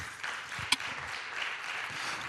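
A church audience applauds the Lord steadily, a dense wash of many hands clapping at once, with one sharper clap standing out early on. No one speaks over it.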